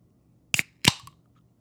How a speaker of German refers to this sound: so auf YouTube, so Can Opening Sound und dann so zack anmachen, dann so, um jedes Mal zu flexen, dass er sich jedes Mal eine Dose gekauft hat